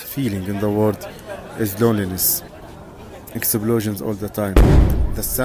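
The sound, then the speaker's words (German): A loud, low, booming impact like a detonation lands near the end, with sharp bursts earlier, while a person keeps talking throughout; continual detonations in the Gaza war zone, heard while the person records. “Detonationen die ganze Zeit. Vielleicht könnt ihr sie hören, während ich das hier aufnehme.”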